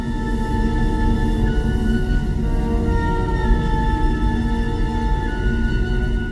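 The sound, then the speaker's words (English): An uneasy orchestral film score motif of long, sustained tones drifting over a dense, rumbling low end, holding at a steady, fairly loud level with no voices. “As Indy and Sallah carry the ark past the snakes, we hear the motif that we heard over the medallion back in Nepal.”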